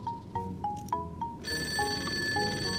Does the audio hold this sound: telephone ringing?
yes